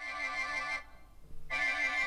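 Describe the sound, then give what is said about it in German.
A telephone rings twice, two bright electronic trills separated by a brief pause, loud, with no voices present. “muss schnell mal ans Telefon was klären.”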